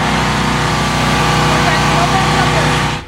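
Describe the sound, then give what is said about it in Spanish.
A portable electric generator runs to power a refrigerator in Vega Alta amid intermittent electricity service, with a loud, steady mechanical drone, a constant low hum layered with buzzy rattling overtones that holds unchanged for about three seconds before dipping at the very end. “Y ahora mismo tengo la planta prendida para darle luz a la nevera.”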